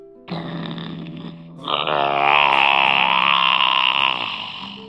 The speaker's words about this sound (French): Il bouge pas d'un poil, quoi. Écoutez-moi son ronflement.